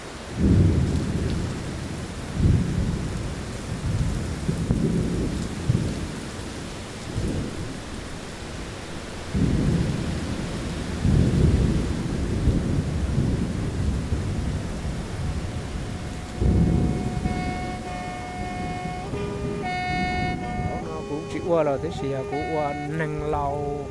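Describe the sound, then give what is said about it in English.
Heavy monsoon rain pours steadily in Long Lan, with deep rumbles of thunder rolling through it. Toward the end, voices come in faintly beneath the downpour. “Once we get to Long Lawn, it's raining, monsoon rains.”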